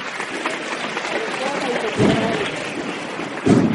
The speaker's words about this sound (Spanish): Cerrado aplauso.